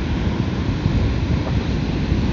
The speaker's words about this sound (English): It's sand and water, and then the water is hitting the sand, the sand is the land excuse me then it's making a, a, a, sound when it crashes the, the waves do that